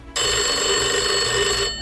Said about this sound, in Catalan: El telèfon, que jo em pensava que era de Trezzo, va sonar.